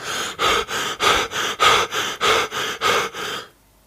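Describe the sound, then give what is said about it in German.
Someone demonstrates hyperventilation, breathing well above a normal rate of about 18 breaths per minute: about ten quick, deep, noisy breaths in a steady rapid rhythm, each a loud airy rush, ending abruptly in silence. “die Atemfrequenz von meinetwegen 18 pro Minute wird deutlich überschritten”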